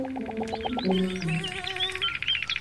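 A blackbird calls: a quick series of rhythmic, clucking notes followed by a few higher whistled phrases over faint background chirping, with no voices.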